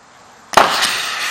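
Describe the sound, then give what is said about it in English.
After a brief quiet moment, a single sharp blast from a small homemade air cannon loaded with lava bursts out loudly, exploding the lava, followed by a sustained rushing, hissing roar that carries on to the end. “Uh, we made a little air cannon and we put the lava in the air cannon and then exploded that.”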